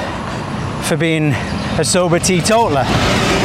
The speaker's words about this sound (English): That's a bin lorry. Again, very British. We're trying to get all the British things into this podcast. We've arranged the bin lorry to come past.